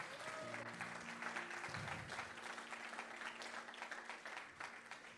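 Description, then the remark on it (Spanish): An audience breaks into steady, dense applause for the Lord that fills the whole clip, with sustained low keyboard chords holding underneath the clapping. “Vamos a darle tu mejor aplauso al Señor.”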